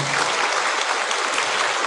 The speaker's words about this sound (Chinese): 但是，请不要，请不要鼓掌。